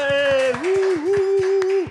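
A few people clap in a quick, steady rhythm while a long, sustained cheering shout rings over it. It is fairly loud, lasting under two seconds.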